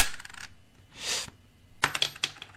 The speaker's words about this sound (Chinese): 听到没有？听到没有？一块钱掉出来了。你你你没听见啊？你你再听。